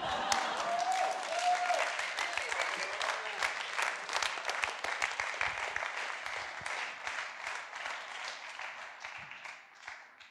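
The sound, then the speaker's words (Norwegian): Sustained applause from an audience, a dense crackle of many hands clapping that carries steadily for about ten seconds before gradually thinning out toward the end. “Holdt på å si takk for applausen, men det var vel strengt talt ikke for meg.”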